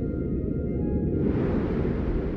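A steady, muffled low rumble of Martian wind, recorded on the surface of Mars by the Perseverance rover in 2021, with the mechanical grinding of the rover's wheels over the surface underneath. Faint whining tones fade into a broader hiss partway through, with no distinct separate clunks.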